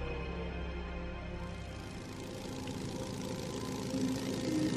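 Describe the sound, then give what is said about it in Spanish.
A motorcycle engine idles with a steady, throbbing rumble, its pitch and loudness swelling slightly toward the end as if lightly revved. No voices are heard. “¿Soñaste con una moto?”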